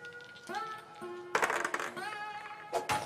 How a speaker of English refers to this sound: Take the mining dice. You're gonna roll the mining dice and see how much gold you get out of the mountain.